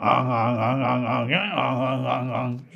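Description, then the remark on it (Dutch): A person imitates a goose with a loud, nasal, buzzing call held for nearly three seconds, wavering steadily and swooping briefly in pitch midway, fairly low for a goose, with no other talk. “wat voor geluid maakt zo'n gans precies? Zou je dat kunnen nadoen?”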